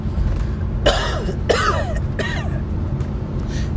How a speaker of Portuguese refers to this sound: Deixa esse tossido entrar no seu subconsciente, tá bom? Você não ouviu esse, esse tossido, esse tossido já faz parte da sua alma, tá bom?